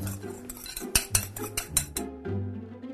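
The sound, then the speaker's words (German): A fork clinks rapidly against a bowl while beating three egg yolks with grated pecorino cheese, a quick run of sharp metallic taps over about a second, with a low steady hum underneath and no talking. “Get a fork and bit them all up.”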